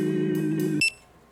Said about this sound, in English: I was standing there staring at the eight burgers, trying to count out the interval between the beeps just to keep myself from going insane